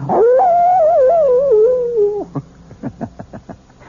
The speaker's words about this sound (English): And the wolf is not only a fascinating creature, he also does something wonderful for all lovers of mystery stories. He makes this chilling sound.